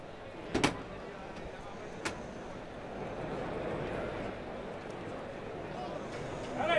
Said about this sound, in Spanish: Que está abierta la puerta de Toriles. Y está Hermes, el torilero, Hermes Cortés, que va a abrir la puerta de Toriles. Vamos a escucharlo.